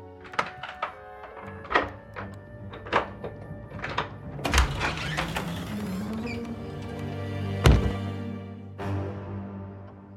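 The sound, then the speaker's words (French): A series of sharp clicks and rattles as a key works a lock, followed by a door creaking open with a rising groan and a solid thud, with no talking. “Prends la clé sous le pot de fleurs et entre me voir.”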